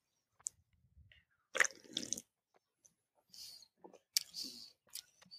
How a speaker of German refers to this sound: Das ist jetzt die Stelle, die alle Podcast-Hörenden äh, wirklich lieben, wenn äh, beide ja. ModeratorInnen äh, erstmal irgendwie was trinken, was, was trinken. essen und dann ins äh, Mikro schmatzen.